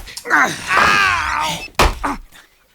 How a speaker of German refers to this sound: Er hat Marlo die Tür an den Kopf gestoßen.